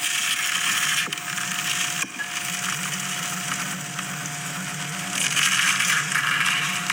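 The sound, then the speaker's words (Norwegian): A bubbly sourdough starter being stirred, giving a steady, dense wet crackle and popping that runs for several seconds with brief breaks early on. No one speaks. “Er det fordi man Det er bobler, og så rørte de i den.”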